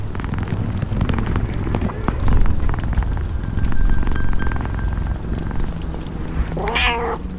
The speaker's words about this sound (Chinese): 瓦西里萨在壁炉旁发现了一只懒洋洋的老猫，正在呼噜呼噜的睡着。